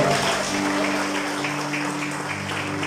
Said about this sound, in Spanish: Denle fuerte aplauso al Señor, por favor.